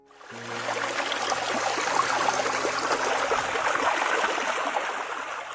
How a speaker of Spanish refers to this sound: Si los hilos de agua se unen, formarán un arroyito. Bajando de la montaña, los arroyos se unirán hasta formar un río.